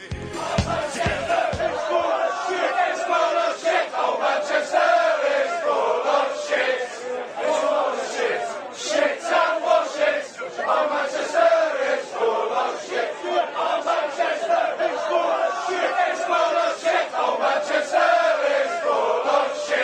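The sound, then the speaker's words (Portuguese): A large crowd of football supporters in England chants "Manchester is full of shit" in unison, a dense, rhythmic wall of many voices that rises and falls steadily for the whole stretch, opening with a few sharp claps or thumps. “A gente vai ouvir Manchester is full of shit. Manchester está cheio de merda.”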